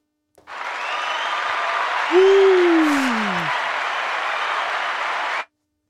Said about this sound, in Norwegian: Det var litt ekstra jubel ja.